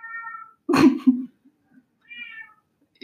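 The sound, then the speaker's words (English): A cat meows twice, brief tonal cries with a rising, wavering pitch, sounding slightly distant, while a person laughs and murmurs briefly between the meows. “you can hear my cat meowing in the background.”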